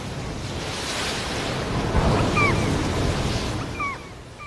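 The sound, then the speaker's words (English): Steady rushing of Arctic Ocean waves and surf, heard from a ship leaving the Svalbard archipelago of Norway, with a broad, washing roar, mixed with wind noise and a few faint high bird-like chirps drifting over the top. “In front of us lies the vast Arctic Ocean, water, nothing but water.”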